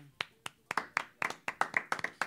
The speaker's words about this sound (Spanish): Un aplauso que llegó como ta, ta, ta, lento, una lluvia.